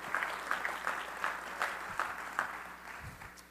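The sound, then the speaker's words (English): A church audience claps steadily together to the Lord, the hand claps landing in a fairly even rhythm about three per second, sustained and moderately loud with no voices over it. “Clap your hands unto the Lord today so I can get a drink of coffee here.”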